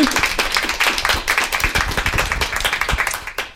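A live audience in the Filmrauschpalast Moabit cinema in Berlin applauds, dense overlapping claps at a steady busy pace, loud, tapering off near the end.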